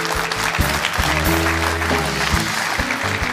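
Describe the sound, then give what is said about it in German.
A TV show's studio audience applauds a guest steadily, a dense, continuous wash of clapping from many hands that holds at a loud, even level throughout, with some faint low tones underneath. “auch wenn du ähm, hier einen großen Applaus dir abgeholt hast”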